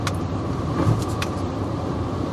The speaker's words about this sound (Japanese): まあ音で分かる通り運転しながら喋ってますので